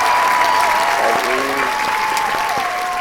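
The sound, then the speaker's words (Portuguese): Steady, loud applause from a group, dense clapping sustained for about three seconds, with a few faint whistle-like tones threading through it. “Aí, na moral, uma salva de palmas para esse episódio que ficou muito pica.”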